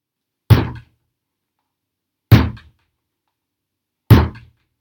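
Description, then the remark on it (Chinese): Three heavy, booming thuds as the big bad wolf rams the second little pig's wooden house, evenly spaced about two seconds apart, each a loud low impact that dies away quickly into silence. “说完，大野狼开始用力撞猪二哥的木屋。”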